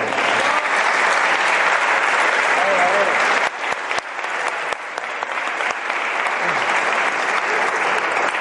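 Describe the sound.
Sustained audience applause for a man who helped develop CDS, a dense crackle of many hands clapping steadily and loudly for several seconds, thinning slightly toward the end with a few scattered voices underneath.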